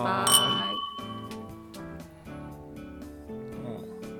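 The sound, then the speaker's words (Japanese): A bright glass clink rings out near the start and lingers briefly, followed by soft background clatter with harmonic tones, as glasses of cloudy, lightly sparkling Japanese sake are touched together in a toast. “はい、じゃあよければはい乾杯”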